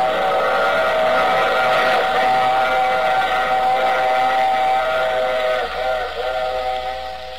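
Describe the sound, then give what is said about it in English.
A loud, sustained steam whistle wails over the steady rumble and clatter of a rolling train, holding its chordlike tone for several seconds before easing slightly near the end. “I take this same train every week at this same time.”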